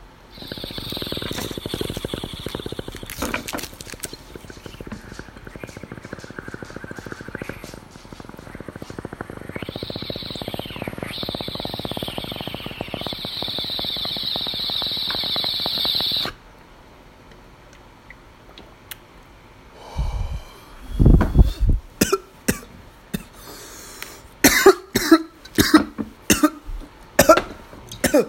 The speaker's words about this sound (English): Now, everybody listening, take a quick 15 second break. Let's get this dab in.